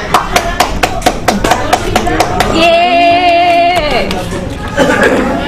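A quick run of sharp, even claps welcoming a woman being introduced as a guest, then a held high-pitched vocal cheer rising over a babble of chatter, with scattered clapping returning at the end.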